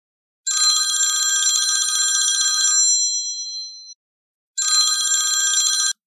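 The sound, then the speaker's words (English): A house telephone bell rings twice, loud: a long metallic trill of about two seconds that rings out briefly, then after a short pause a second burst that is cut off. “However, right around dinner time, the house phone rang.”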